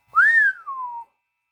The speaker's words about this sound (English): Chet Morton whistled.